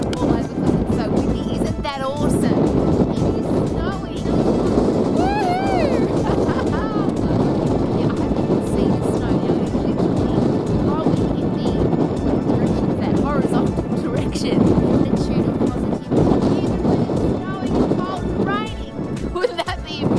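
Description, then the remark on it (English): Strong wind roars steadily outdoors in wild weather with snow, rain and below-freezing cold, buffeting loudly and continuously for the whole stretch, with a voice talking underneath the blustery rush. “outside in the wild, wild weather, snowing and windy and raining and minus cold and just awesome.”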